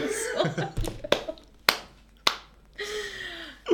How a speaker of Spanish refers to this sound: Se aplaude